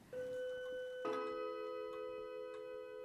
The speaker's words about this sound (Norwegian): Den klokken var min mor kjøpte i sin tid. Og da hun døde, så overtok jeg den klokken. Jeg syns det er veldig greit. Det blir sånn litt liv i stua når vi hører det ringer.